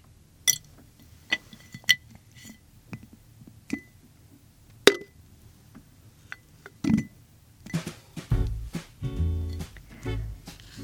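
Small objects collected that day are placed into a glass jar one at a time with sharp, ringing clinks, then a busier run of clattering and rustling. Fairly quiet, with no talking.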